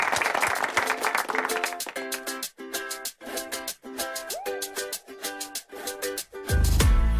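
A short burst of crowd applause at the start, quickly giving way to an upbeat music track with rhythmic chords that carries on to the end.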